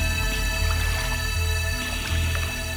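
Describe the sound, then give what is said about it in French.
Soft percussion repeats steadily in the background of sustained music, its washing, swishing rhythm suggesting waves breaking on sand. There are no voices. “qui rappelle l'impact des vagues sur le sable.”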